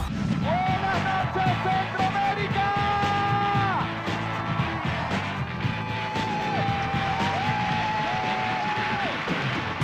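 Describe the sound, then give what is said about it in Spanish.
An audience applauds and cheers loudly for about ten seconds, a dense steady wash of clapping topped by drawn-out whoops and shouts that rise and fall, for host Nelson Bustamante at a UNICEF broadcast in Venezuela. “Nuestro aplauso para Nelson Bustamante.”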